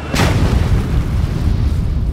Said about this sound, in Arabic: بعد جزء من الثانية ترتطم الطائرة لايون إير 610 بالماء ليموت كل من كان على متنها